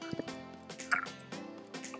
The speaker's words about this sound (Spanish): sorry, voy a tomar agua porque llevo mucho rato hablando.